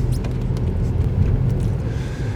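Steady low engine rumble and road noise from inside a small Fiesta car being driven, a continuous droning hum with faint rattles, no one speaking.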